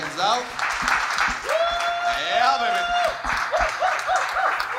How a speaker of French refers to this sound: On peut applaudir à Rouleau Rouleau d'être